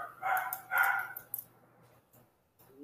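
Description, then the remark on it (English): Two quick barks from a pet dog named Dubu, close together and moderately loud, followed by a faint short yip near the end over a low steady hum. “Oh, did you hear that? Yeah. Oh. Yeah, that's him.”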